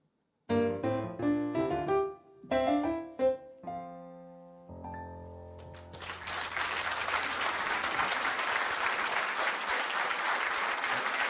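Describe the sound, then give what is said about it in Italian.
A few seconds of sustained musical notes and chords fade into a long burst of audience applause at Tasacava for a singer and a musician, loud and steady dense clapping that continues to the end. “Gli applausi in Tasacava sono per ….”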